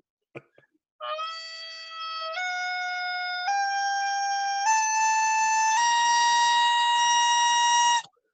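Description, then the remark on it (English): A bagpipe plays a loud, unbroken reedy tone that climbs step by step through about six held notes, each slightly higher than the last, then cuts off abruptly. “I will toot my bagpipe.”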